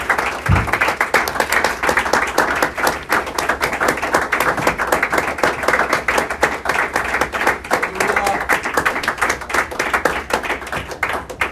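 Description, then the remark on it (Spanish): A large church audience applauds for the Lord Jesus Christ, dense overlapping handclaps steady throughout at a loud, even level without a break, with a faint murmur of voices beneath. “Le damos un aplauso más al Señor Jesucristo mientras busca donde sentarse.”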